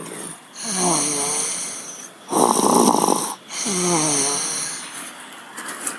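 A sleeping female animal, sitting with its head slumped forward and down, snores softly, with slow breaths alternating between a thin, wheezy whistling rasp and a breathy, airy exhale, repeating about twice with no talking.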